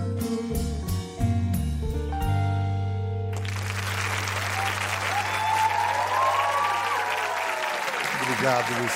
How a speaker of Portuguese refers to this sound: Pode aplaudir ….